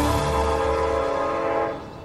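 A train horn blares in a steady, loud chord of stacked tones over the low rumble of a rolling train, then fades over the final half second.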